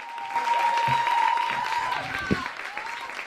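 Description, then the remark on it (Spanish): A comedy show audience applauds as the comedian comes on: a dense, steady wash of clapping that fills the whole stretch at moderate loudness, with a thin sustained whistle-like tone riding over it for the first couple of seconds. “Bueno, en primer lugar, muchísimas gracias por este aplauso hipócrita.”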